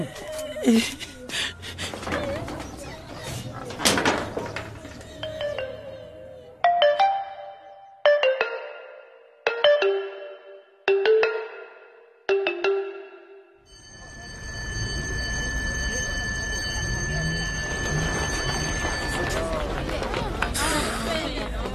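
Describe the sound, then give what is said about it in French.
A bell rings in a series of five or six short, bright bursts with brief gaps between, signalling a break from classes, preceded by noisy clatter and followed by a sustained tonal ring over crowd murmur. “J'avais vraiment envie d'entendre cette sonnerie il nous accorde une pause.”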